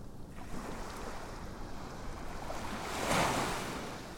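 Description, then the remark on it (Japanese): Gentle ocean waves wash ashore in a soft, steady hiss, with one wave swelling a little louder before easing back. There are no voices, just the continuous surf. “聞こえてくる音に耳を傾けましょう優しく寄せては引いていく波静かで心地よい海辺をイメージしてください聞こえてくる波の音に意識を向けましょう”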